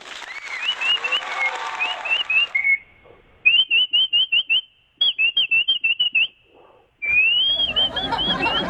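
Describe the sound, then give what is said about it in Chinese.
Someone whistles an imitation of winter birds chirping: rapid high trills, then a series of short repeated chirps in quick rhythm, ending in a rising warble over a noisy background. “啊，就是吹学鸟叫了嘛，叫这冬天的鸟叫嘛”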